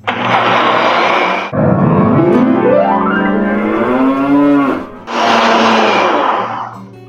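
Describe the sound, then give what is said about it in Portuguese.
A blender whirs loudly as it blends oats with twice as much water and a pinch of salt. Its roar gives way to a droning motor tone that rises and wavers in pitch, then the full grinding roar returns. “você vai jogar a aveia no liquidificador e bater com o dobro de água.”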